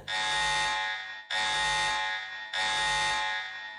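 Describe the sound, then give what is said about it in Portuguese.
A loud, harsh spoiler alarm sound effect buzzer blares three times in a steady rhythm, each blast lasting over a second with only a brief gap between them. No voices are heard. “e solta o alarme de spoiler aí primeiro, então?”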